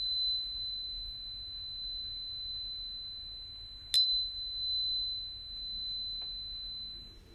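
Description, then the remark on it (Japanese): A steady, piercing high-pitched test tone holds unbroken for the whole clip over a low background hum, interrupted only by a brief click near the middle. “これはですね、4000トンで 96Hz の大変あの高い高周波の音ですけれども、モーツァルトの音楽というのはこの 4096Hz の音がよく使われているんですね。”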